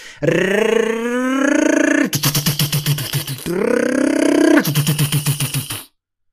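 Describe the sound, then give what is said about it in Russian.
A voice imitates a car engine twice, each time a rising, revving growl breaking into a fast, throbbing burble. The sounds are loud and made alone, with no talking over them. “Чтобы вот она прям ехала, да, не, не пердела, чтобы у нее звук был а не вот этот э, новомодный современный китайский”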